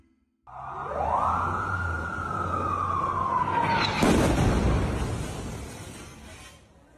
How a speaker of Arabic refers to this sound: هذا صوت قصف إسرائيلي في ليلة 23 أكتوبر لمحيط مستشفى القدس في غرب مدينة غزة